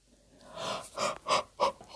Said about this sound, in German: Frau Usebuse gähnt wieder, denn sie ist müde, sehr müde.